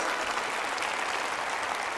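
Steady applause from an audience, a dense wash of many hands clapping at once, fairly loud and sustained without pause through the whole moment, for a woman who took part and was given the speaker's book.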